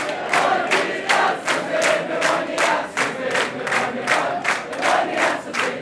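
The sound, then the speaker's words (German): A large crowd of concert fans in a small hall at 10 pm loudly cheering and clapping in a steady, fast rhythm, with chanting voices, demanding an encore without letup for the whole stretch. “Die Fans drin sind um 22 Uhr noch nicht bereit zu gehen.”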